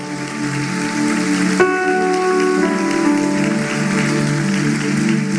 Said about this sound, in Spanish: Vamos, déjale fuerte ese aplauso de victoria al Señor.